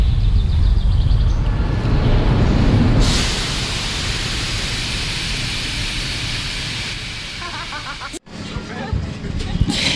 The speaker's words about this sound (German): Habe dort einen ähm, wunderbaren Vogel, einen Amsel, Gruß aufgenommen und auch am Bahnhof in Zürich.